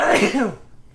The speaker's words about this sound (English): Gesundheit. Gesundheit.